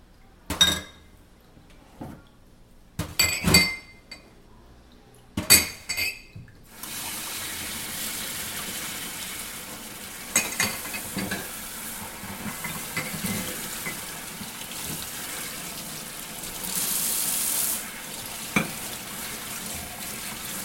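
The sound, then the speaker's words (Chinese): Glass cups clink sharply several times against one another as someone washes them, and then a steady stream of running tap water takes over, with more clinks and clatters of the cups scattered through the flow. “好，所以你听到空空空声音，他正在洗这些杯子。”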